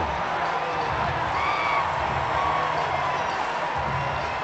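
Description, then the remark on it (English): A stadium crowd at 24 Willie Mays Plaza roars steadily after Joc Pederson's home run ties the game 11 to 11, a loud, dense wall of cheering that holds for several seconds, with faint whistles rising above it. “It is 11 to 11, and this crowd is delirious.”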